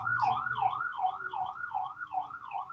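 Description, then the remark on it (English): Many sirens wail outside in a quick, steady up-and-down warble, cycling repeatedly without a break over a low background rumble, with no one talking. “Ooh, lots of sirens going on over there.”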